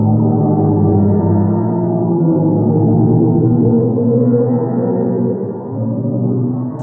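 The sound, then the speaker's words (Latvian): Sonified sound waves from oscillations in the hot gas around a black hole, an audio clip published by NASA on its Twitter account: a dense, eerie low drone of layered moaning tones that hums steadily and loudly for several seconds, with no voices. “Precīzāk, skaņas viļņa svārstības karstajā gāzē ap melno caurumu.”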